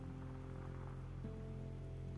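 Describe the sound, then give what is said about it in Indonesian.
Steady, soft rain falling in a continuous hiss, fairly quiet and even throughout, with a low electrical hum underneath and no voices. “Antara kamu dan hujan itu punya ceritanya tersendiri buat aku.”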